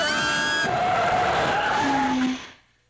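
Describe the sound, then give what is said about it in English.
Loud air brakes squeal with a harsh hiss, shrill whistling tones sliding downward over a broad rush of noise for about two seconds before quickly fading out. No one speaks. “Air brakes.”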